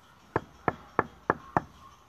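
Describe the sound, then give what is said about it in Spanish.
Five sharp knocks on a wooden door, evenly spaced, each a short hollow thud with a quick decay, followed by quiet as no one opens. No one speaks. “Parece que nadie abre.”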